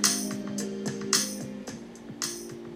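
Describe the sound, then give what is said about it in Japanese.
A soft electronic background track made in GarageBand, with sustained synth chords and a steady beat of crisp percussive hits, playing alone at a moderate, even volume. “今日は後ろで流れてる音楽ガレージバンドでね作ってみましたよ昨日シュネさんがねガレージバンドのこの曲の作り方講座みたいなのをねやってくれててそれを聞きながらその通り手を動かしていったらで僕なりのチョイスで音楽を選んだ結果こういうね BGM がね作れましたよ”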